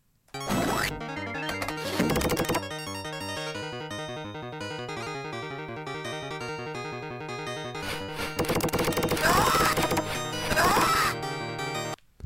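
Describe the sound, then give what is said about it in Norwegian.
Ominous chiptune-style castle level music from a 2D platform game plays steadily, its dense melody punctuated by loud crashing, smashing bursts near the start and again toward the end. “Eh, jeg tenker umiddelbart at vi er et eh, slott. Det er en slott, ja. slottsbane her.”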